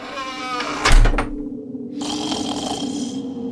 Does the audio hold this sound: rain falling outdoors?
no